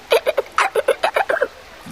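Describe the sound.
A voice imitates dolphin squeaks, speaking 'dolphin language', with a quick run of about ten high, chirpy clicks and whistles in a steady chattering rhythm. It is fairly loud, with no other speech.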